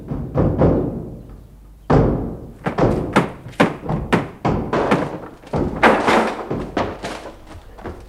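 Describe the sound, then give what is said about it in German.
Repeated heavy thuds and bangs against a locked apartment door, a series of irregular impacts over several seconds, loud, as people ram it together until it gives way. “Tür ist verschlossen. Ja, Kunststück. Los, mit vereinten Kräften. Eins, zwei.”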